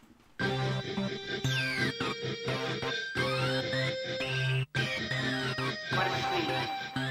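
A loud, full-sounding dance pop track with Latin influences kicks in after a brief quiet start, playing continuously with a steady beat and bright layered melodies, broken only by one momentary dropout.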